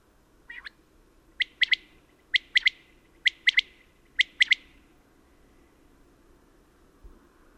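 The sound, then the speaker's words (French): A common quail sings a run of about five sharp, liquid three-note phrases at a steady, brisk rhythm, clear over a faint outdoor hiss, with no one talking. “La Caille des blés”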